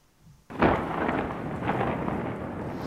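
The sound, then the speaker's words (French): A thunderstorm with pouring rain bursts in after a brief quiet moment over the crowd gathered on top of Fourvière hill in Lyon for the blessing of the Virgin after mass and the procession, on 8 December 1852: a dense, steady hiss of heavy rain with a deep rumbling undertone of thunder, loud and continuous throughout. “Cet après-midi, sur le sommet de la colline de Fourvière, la foule qui s'est amassée pour la bénédiction de la Vierge après la messe et la procession a été surprise par l'orage et la pluie battante.”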